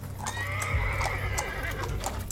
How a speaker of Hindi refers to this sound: सब तांगे में बैठ गए तांगे वाले ने अपने घोड़े दौड़ा दिए